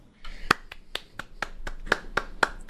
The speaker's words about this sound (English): You guys want to clap again?